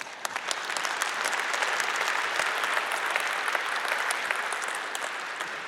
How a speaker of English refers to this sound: And yes, you can clap for that.